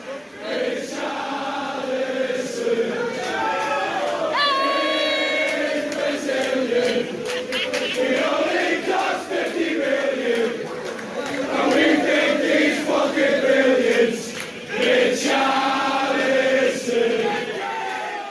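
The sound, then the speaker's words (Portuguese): A large crowd of Everton football supporters sings a chant together in a stadium, the massed voices loud and sustained with a rhythmic swell, occasional sharper shouts rising above the roar. “Aí, bela música da torcida. Essa já é a torcida do Everton.”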